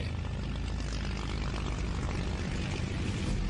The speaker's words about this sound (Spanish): En el extremo norte del aeródromo, aviones P-47 Thunderbolt y el escuadrón de caza 366 se preparan para el despegue. Deben cumplir una misión de apoyo aéreo sobre los cielos de las Ardenas.